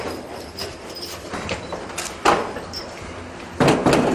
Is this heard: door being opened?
yes